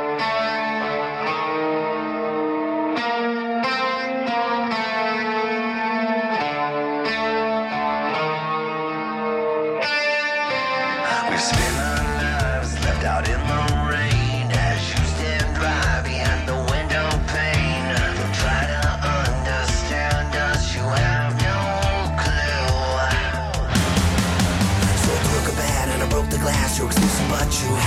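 A heavy metal rock track plays loudly, opening with a sustained, effects-laden guitar chord before pounding drums and a dense, distorted full-band riff crash in and drive steadily onward.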